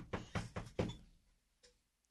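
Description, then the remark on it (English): Four quick, solid knocks on a door in a steady rhythm, fairly loud, as a canvasser from the Barack Obama presidential campaign comes to the door, followed by a faint softer tap and a brief click as they fade. No one speaks. “Someone comes to your door.”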